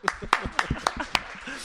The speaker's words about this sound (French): bravo, moi j'applaudis